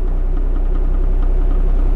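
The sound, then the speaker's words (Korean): A wall-mounted electric fan rotating in a lodging establishment, giving off a steady, low mechanical hum at an even loudness, with faint ticking catches now and then. No one speaks. “아, 뭔가 이렇게 걸리는 소리 같은데 이게 벽에 선풍기 회전하는 소리랍니다.”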